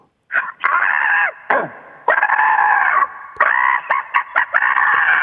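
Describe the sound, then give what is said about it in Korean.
A caller from Gangseo-gu, contestant number 1 in a radio crow-imitation contest, imitates a crow's caw in a series of loud, harsh, nasal calls, some drawn out and some short and clipped, with brief pauses between them. “자, 자, 자, 이 1번, 1번 까마귀, 강서구 까마귀 다시 한 번요.”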